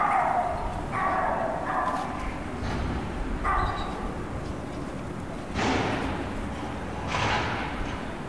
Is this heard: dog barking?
yes